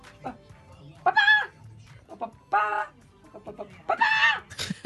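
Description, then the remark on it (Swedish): A person imitates a clucking chicken while holding a mobile phone and playing the mobile game Chicken Scream, producing a few loud, rising squawk-like bursts separated by short pauses. “som kacklar med telefonen i handen.”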